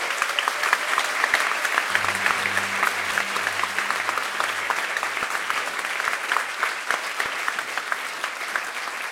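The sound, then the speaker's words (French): Sustained audience applause for lawyer Yassine Bouzrou fills the whole stretch, a dense, steady patter of many hands clapping at even loudness, with a faint low hum briefly underneath. “Donc je vous demande de l'applaudir parce que heureusement qu'il est là.”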